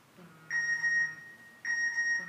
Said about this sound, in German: Hört ihr das? Da hat noch jemand ein uraltes Handy.